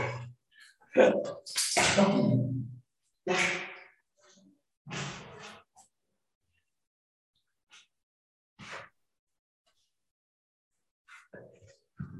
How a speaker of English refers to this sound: wait a second, the dogs. God dang, the dogs.